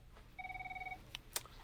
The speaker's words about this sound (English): You can hear a phone in the background